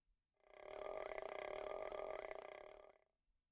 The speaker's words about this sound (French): Entends le ventre de Goku faire du bruit.